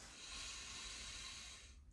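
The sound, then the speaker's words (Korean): One long, deep breath pushed out, a steady airy rush lasting almost two seconds before it tapers off abruptly into quiet. “자꾸 숨 막힌데 숨 쉬어요 우리 다 같이 숨 쉬자”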